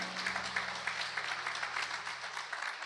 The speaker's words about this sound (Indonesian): Beri tepuk tangan yuk buat Tuhan kita ya.